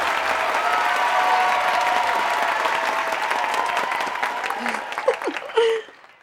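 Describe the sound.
A crowd claps steadily for about five seconds during an interview on the show Vive y Aprende, a dense, loud patter of many hands with a few voices mixed in, before the applause tapers off and stops.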